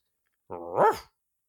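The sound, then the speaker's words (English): A single bark from a dog named Arthur, heading for the docks at sunset, starting as a short growl and rising into one gruff woof, fairly loud, alone against silence. “The sun was setting, the very nearly full moon was on the rise, and Mattie Roberts, with her faithful dog Arthur, were headed for the docks.”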